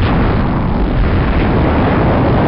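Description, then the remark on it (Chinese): A massive explosion from a 15-kilometre-wide asteroid striking the coast of the Yucatán Peninsula in eastern Mexico 66 million years ago, heard as a loud, continuous roaring rumble with heavy low-end boom that holds steady for a couple of seconds, with no voices present. “在六千六百万年以前啊，以前的说法是六千五百万年以前，在今天的墨西哥东部的尤卡塔半岛的沿海，这个一颗宽度达十五公里的小行星，这个大小呢相当于一个中小型城市，突然从天而降，直接撞进半岛的海岸区域，”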